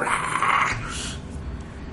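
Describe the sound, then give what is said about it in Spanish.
A person voices a loud, raspy dragon-like roar, harsh and breathy at first, then trailing off into a lower, rumbling growl that fades over about two seconds. “gritas y mientras gritas y elevas el vuelo, ves que a un lado había varios perros infernales que estaban acercándose olisqueando y, y al verte rugir se van corriendo por la pradera de fuego.”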